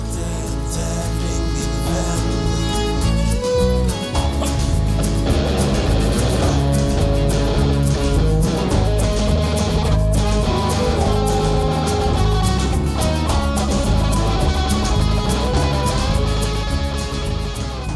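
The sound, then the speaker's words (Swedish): A full, loud instrumental jingle plays continuously with bright brass-like melodic lines over a steady rhythmic backing, sounding like closing theme music with trumpets. “Det var ju lite trumpeter och så i, i sista låten, i slutvinjetten.”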